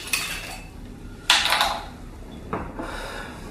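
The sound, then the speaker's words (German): Glasses and dishes clink and clatter as vodka is served, in three short bursts, with bright rattling contacts around one and a half seconds in, then quieter handling sounds; no one speaks. “Also dann serviere ich uns mal.”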